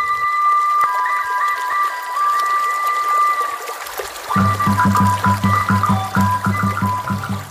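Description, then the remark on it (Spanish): Water trickles and gurgles steadily throughout, mixed with sustained high whistling tones; about halfway through, a low, pulsing hum joins in beneath the flowing water. “Ahí están las pirámides, el agua, las calles de tierra y las canoas que comunican poblados e intercambian mercancía.”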